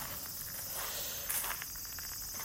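Cicadas drone steadily outdoors in a temple precinct on a summer evening just before 6 p.m., in a continuous high, buzzing wash, fairly faint, with soft footsteps or light shuffling underneath from someone strolling, and no one speaking.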